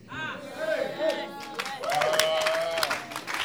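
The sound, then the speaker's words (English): An audience claps in a dense, steady patter that swells louder in the second half, while voices call out and cheer over the applause. “So oh, those who are clapping, God just give you a breakthrough.”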